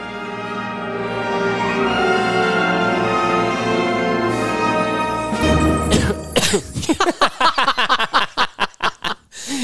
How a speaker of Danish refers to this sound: men det kunne man jo nok regne ud, at du har besluttet dig for, at du skulle starte det her afsnit med at hoste.